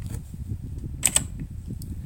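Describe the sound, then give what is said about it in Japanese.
A computer keyboard is tapped twice in quick succession to wake a sleeping computer and show its screen, two crisp clicks close together against a steady low background hum, with no one speaking. “今あのパソコンがスリープに入ったんでキーボードをして画面を表示させました。”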